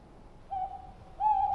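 Two steady, tonal owl hoots from a small owl sitting beside a hiking path, the first softer and the second louder and longer, against a quiet outdoor background.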